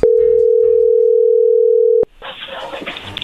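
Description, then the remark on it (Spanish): A steady, unbroken telephone dial tone hums at a constant pitch for about two seconds as a phone call is being dialed, then cuts off abruptly, followed by a burst of brighter hissy line noise. “Muy bien, ahí se está marcando.”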